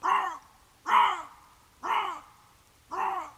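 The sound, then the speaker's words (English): Four harsh, raspy bobcat calls from a played recording ring out one after another, evenly spaced about a second apart, each loud with a quick fade, and no one talking. “Oh, bobcat sounds. Okay, the animal sounds.”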